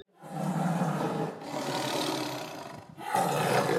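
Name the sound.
tiger roaring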